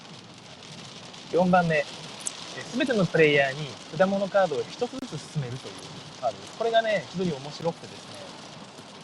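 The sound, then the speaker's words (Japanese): Steady rain mixed with hail patters outside in Fukui, Japan, as the rain grows heavier, a continuous, fairly soft hiss running under a man talking into the microphone. “ちょっと雨が、あられが降ってきて、バラバラって音が入ってるかもしれませんが、大丈夫ですね。”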